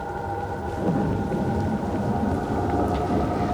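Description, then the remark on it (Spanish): Steady rain hisses throughout, with a deep, rolling rumble of thunder underneath and a faint sustained tone in the background; no one speaks. “Bueno, ¿hay algo que dé más serenidad que la lluvia por la noche”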